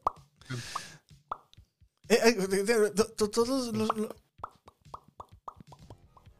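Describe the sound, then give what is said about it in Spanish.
A voice makes a series of quick, wet mouth plops imitating rabbit droppings falling, first a few scattered pops, then a steady run of evenly spaced plops after a burst of loud laughter and talk. “Cagarruta de conejo de. Con el sonido, ¿eh?”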